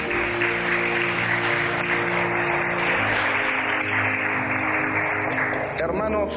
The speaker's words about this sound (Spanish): ¿Te gusta este salmo? Aplaude al buen pastor, a Jesús.